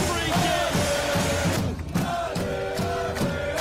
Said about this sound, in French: Eh ouais, les supporters de l'impact, la foule était en délire après euh, ce but à la 88e de Laurent Simon qui vient euh, ponctuer une performance euh, exceptionnelle, il y a vraiment rien à dire là-dessus.